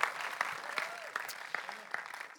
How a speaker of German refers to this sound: Großen Applaus